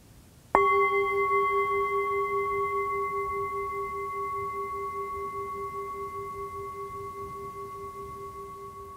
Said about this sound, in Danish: Og hver gang du hører slaget på syngeskålen, så lad det være en påmindelse om at blive til stede med det, du laver.